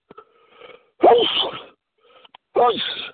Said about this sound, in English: Excuse me. I got one more sneeze here.